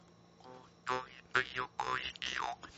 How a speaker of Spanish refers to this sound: es como el sonido de la rana cuando cantan en época de lluvia.